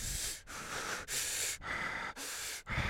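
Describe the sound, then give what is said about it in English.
A voice imitates the heavy, shaky breathing of someone who was shaking: about six rapid, forceful breaths in and out, each a loud rasping hiss separated by brief catches, continuous over a few seconds. “This is your friend, and uh, and so I just sat on the edge of the bed, and essentially you were breathing like”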